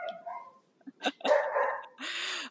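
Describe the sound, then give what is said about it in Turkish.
A neighbour's dog barks several times in quick, uneven bursts, some drawn out and whiny, fairly loud with no voices over it. “Arkada sürekli bir köpek havlaması duyacaksınız bu arada.”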